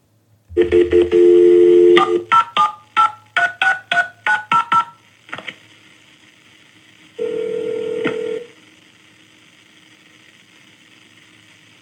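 A steady phone dial tone gives way to a quick run of about eight touch-tone beeps as a call is transferred to an office in the caller's police jurisdiction, then after a pause a single longer ring tone sounds on the line; no one speaks.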